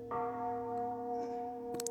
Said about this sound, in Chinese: 听到大昭寺里传来浑厚的钟声。这钟声。敲进了你的心里